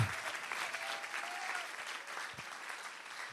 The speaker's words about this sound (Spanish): Alguien que le dé un aplauso al Señor como si lo creyera de verdad.